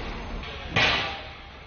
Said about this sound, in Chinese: 这里是位于巴基斯坦北部的喀拉昆仑公路二期工程的施工工地。